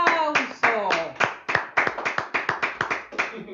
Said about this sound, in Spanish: ¡Qué bonito! ¡Un aplauso!